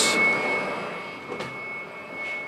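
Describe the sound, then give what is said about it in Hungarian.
A steady, muffled machine roar from a high-power inverter being tested in a laboratory, heard from the control room with the door closed, with a constant thin whine running through it and a few brief swells of noise. “Kipróbáljuk azt, hogyha bemegyünk a vezérlőbe és becsukjuk az ajtót, akkor vajon mennyire hangos az egész rendszer?”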